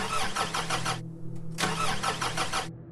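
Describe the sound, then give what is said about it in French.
A broken-down car's engine cranks in two bursts of grinding starter noise, pausing briefly between attempts, with a low idle hum underneath, fairly loud as it struggles to catch; at night in the middle of the road on the way back to Rabat in the early 1990s. “Alors qu'il fait déjà nuit, sa voiture tombe en panne au milieu de la route.”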